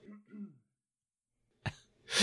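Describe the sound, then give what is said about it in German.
A short, sharp cough bursts out after a brief murmur and a stretch of near silence, followed by a second rougher, throat-clearing cough right at the end. “Ich muss husten, habe mich gemutet.”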